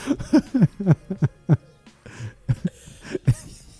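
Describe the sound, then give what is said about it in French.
A series of short, breathy owl hoots repeats in quick, uneven succession in a forest, clear, with brief pauses between the calls and a faint hush of background air. “Alors, je l'aurais sûrement coupé au montage, bah, mais alors il y a du hibou à ah balle.”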